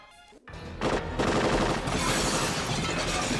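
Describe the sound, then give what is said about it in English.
A scene from the film Die Hard: terrorists shoot out glass. Sustained automatic gunfire bursts out after a brief pause, a dense, loud clatter of rapid shots blending with crashing, shattering glass that continues without letup. “Um, he mentions in the commentary now that um, he had a similar scene in Die Hard, his follow-up movie to this one, where the terrorists are all shooting the glass. Shoot the glass.”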